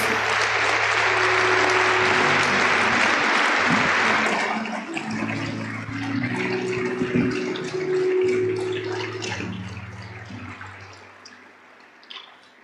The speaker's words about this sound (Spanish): Dale otro fuerte aplauso a Dios.